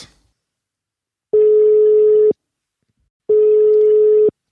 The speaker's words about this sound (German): Schauen wir doch mal, ob er... Abnimmt. Abnimmt. Es läutet.